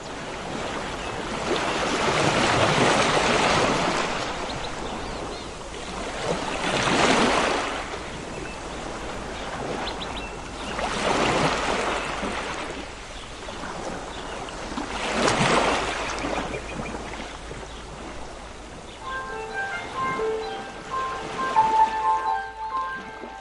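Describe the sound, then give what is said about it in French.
Sea waves wash onto the shore in steady surges, about one every four seconds, each a broad rushing hiss that swells and fades. Faint tonal sounds appear near the end. “Alors qu'il aperçoit la mer, Michel pense au naufrage de ce triste mariage.”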